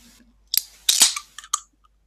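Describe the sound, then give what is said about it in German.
A sharp pop rings out amid a few clattering knocks and clicks of handling noise, including the microphone being bumped, as a cork is pulled from a bottle of Kessler sparkling wine, with a brief hiss after. “Zuerst war da so ein bisschen gerumpelt. Ich glaube, dein Mikro ist irgendwo angestoßen, aber dann hat man ihn ganz deutlich gehört.”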